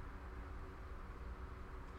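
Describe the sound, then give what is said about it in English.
A steady, low rumble of a passing train, a continuous rolling drone with faint higher hiss, no voices over it. “Just, well, I've got I've got trains in my in my background.”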